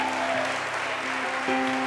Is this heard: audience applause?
yes